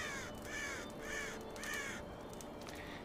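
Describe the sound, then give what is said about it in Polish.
Ravens caw in a series of about four harsh calls spaced roughly half a second apart, over a steady background hiss with no talking. “A potem usłyszałeś kruki.”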